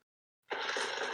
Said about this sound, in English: Hey. That is the sound of thunder.